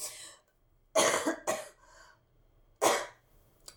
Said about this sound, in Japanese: ごめんね、咳させちゃって、ちょっと自分が、あ エネルギーが違いすぎちゃうからこうなっちゃうんだな。